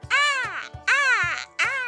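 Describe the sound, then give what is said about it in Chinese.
A voice imitates a crow as a sound effect for an awkward silence, giving three harsh, drawn-out "caw" calls in a row, loud and nasal with a falling pitch at the end of each. “沉默，对，就是乌鸦飞过，完全没声音。”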